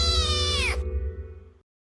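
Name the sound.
cat meowing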